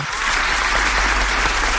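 A steady burst of applause from many hands, dense and continuous clapping that stays loud for the whole stretch, with no voices standing out above it.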